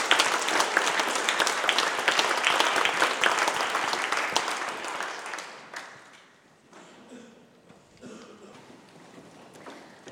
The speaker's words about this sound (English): Please welcome them with a round of applause.